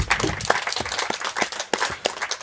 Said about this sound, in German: Einen großen Applaus